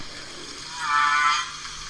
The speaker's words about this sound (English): people will hear ambient sounds, and the different oceans will play different whale uh, tracks. So we'll hear audio clicks, we'll hear calling like this, and we'll hear actually some of the impacts that um, human-produced noise causes.